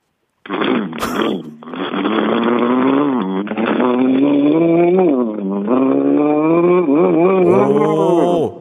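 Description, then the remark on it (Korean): A voice imitates a motorcycle with a broken muffler that has a hole in it. It is a continuous loud buzzing drone with sputtering, wavering pitch that revs up and down for about eight seconds. “자, 머플러가 불안정한 오토바이.”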